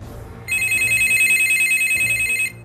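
A telephone rings in the Ma Lin family home, the house nearest the village committee, on the afternoon of 6 August 1998, an urgent call to convene a village emergency meeting: a bright, shrill electronic trill, one sustained burst lasting about two seconds over a low background rumble, loud and steady before cutting off.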